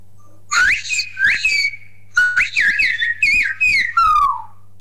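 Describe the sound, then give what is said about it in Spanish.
A loud whistled phrase in silbo, a whistled language, rendering the Spanish sentence "vale, vale, mañana te lo llevo": a quick series of syllable-like whistles with rising and falling pitch glides, ending in a long descending note, over a faint steady hum. “Vale, voy a silbar eso.”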